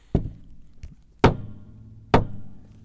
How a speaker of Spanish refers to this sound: quiero que escuchen un libro de fotografía con todas las hojas enceradas